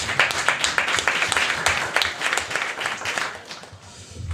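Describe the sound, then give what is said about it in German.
Steady applause from several people, the hosts applauding their audience at a full-house event, dense overlapping claps at moderate volume, thinning out slightly toward the end with no one speaking. “Deswegen Applaus von uns erstmal an euch.”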